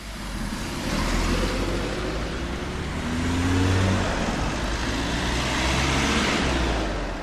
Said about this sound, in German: Vor der Toreinfahrt brummt der Verkehr.